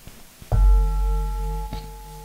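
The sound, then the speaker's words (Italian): A bell struck once by the speaker, fairly loud, its clear tone ringing on and slowly fading, with a faint knock partway through the sustained hum. No one speaks. “il momento in cui io suono la campana, naturalmente sentiamo questo suono e da questo ci sorge una sensazione.”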